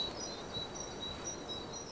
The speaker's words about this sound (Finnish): Linnut laulaa, korppikikkaraakku äsken hienosti.